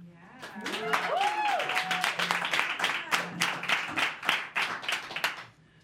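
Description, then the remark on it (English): A crowd in Boise applauds steadily for several seconds to welcome a performer, dense overlapping hand claps with a few cheers and whoops rising over them before the clapping fades out. “Uh, as we get ready, I would like to have the crowd who's joined me today give a warm welcome”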